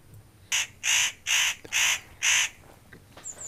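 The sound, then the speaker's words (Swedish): A spotted nutcracker gives a series of five harsh, rasping krr calls in a steady rhythm, loud, with a faint bird note at the end. “Jo, det var det här krr, krr, krr lätet som avsågs. Ja. Jo, det är mycket kännbart när man har lärt sig känna igen det. Det är nötkråka.”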